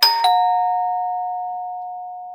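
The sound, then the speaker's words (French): A doorbell chimes twice in quick succession, two bright tones struck close together, then a long clear ring fades slowly into silence. No voices. A little boy is ringing at the door of the Jardin des délices. “En douce, le petit garçon casse sa tirelire et va sonner à la porte du jardin des délices.”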